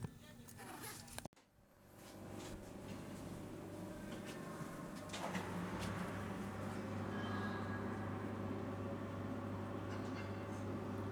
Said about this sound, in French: Donc là, on est à la frontière russe, euh, frontière biélorusse. ils sont en train de changer les roues de tout le train. a les mecs, qui sont en train de s'affairer autour des wagons. Et là, il a été soulevé dans une espèce d'énorme machine.